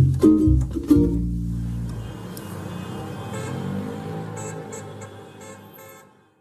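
A car horn sounds loudly at the end of an amateur musical performance, in two short, low-pitched honks, then a blurred, rumbling tail slowly fades out over several seconds. No one speaks.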